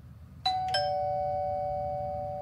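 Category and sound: household object, doorbell ringing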